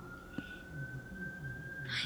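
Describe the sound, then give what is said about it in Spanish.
An ambulance siren passing in front of a house holds a steady, high wailing tone that drifts slightly in pitch, heard faintly from outside beneath low background murmur and room noise. “Sí, lo que pasa es que estoy esperando que pase la ambulancia.”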